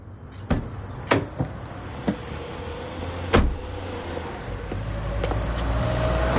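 A car door opens and shuts with a few sharp clicks and a solid thunk over a steady low rumble that swells slightly toward the end, as a man gets out of a parked car.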